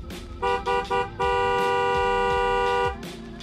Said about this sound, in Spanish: Sol decidió que sería buena idea aplastar la bocina hasta que alguien saliera a ayudarlo